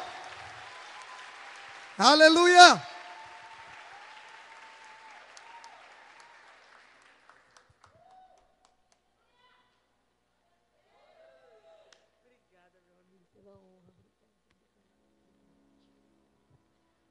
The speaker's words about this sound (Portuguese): Aplauda o Senhor!